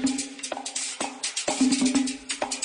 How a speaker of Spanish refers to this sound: Y a este instrumento le pusieron la guira, que suena así, o merengue.